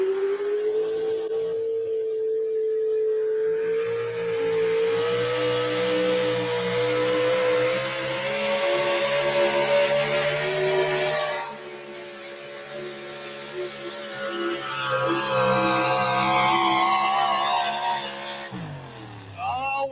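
A loud Chevrolet truck engine roars steadily under heavy load during a truck pulling competition, its pitch climbing slowly as it strains for nearly twenty seconds, then cuts off abruptly near the end.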